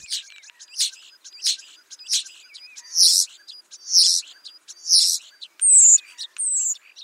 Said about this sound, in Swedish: Men när sjunger den? Är det bara på våren eller? Det är under häckningstid Jag ska inte springa ut nu och lyssna. Nej, men å andra sidan så kan du höra de här lätena från starflockar också.